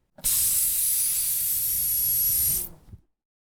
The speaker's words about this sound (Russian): Представьте себе. Ни с того ни с сего он мог начать сдуваться. Причем не весь сразу, а сначала одна чашечка, а потом другая. К тому же воздух покидал чашечку с легким свистом.